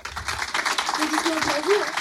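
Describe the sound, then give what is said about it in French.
A studio audience in the public studio of radio station Fréquence Plus applauds steadily for a couple of seconds, a dense wash of clapping with a voice or cheer rising faintly through it. “applaudissements pour elle.”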